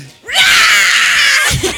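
A loud, sustained high-pitched scream of joy lasting about a second, bright and strained, rising abruptly and cutting off, followed by a brief vocal sound.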